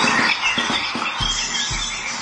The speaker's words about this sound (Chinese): 有一位外国网友呢，捡到了一只受伤的雏鸟，想喂它，但是啊，这个可怜的小家伙很固执，只有听到这个妈妈的叫声才会吃饭。于是呢，这名网友就想了一个机智的办法，就是录下了别的鸟妈妈喂食的叫声，让小鸟顺利开口进食。